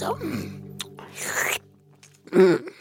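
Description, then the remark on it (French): Mouth noises of a hungry grandfather character eating, with wet munching and smacking between appreciative hums, apparently a voice imitating chewing rather than real food sounds. “Et quand Papy Gérard a faim, il mange.”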